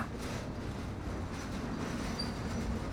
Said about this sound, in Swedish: Tåget med sina sex stora vagnar är ett viktigt färdmedel för tusentals människor som dagligen pendlar till och från huvudstaden.